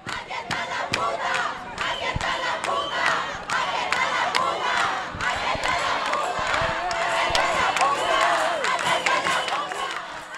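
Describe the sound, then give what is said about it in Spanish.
A large crowd of protesters on Calle del Cristo shouts and yells at police in a dense, chaotic roar while throwing plastic bottles, with scattered sharp thuds and cracks as police fire rubber-coated pellets, the noise staying loud and agitated throughout. “Cuando la gente le gritaba y le tiraba botellas de plástico a la policía, estos contestaban con balines cubiertos en goma.”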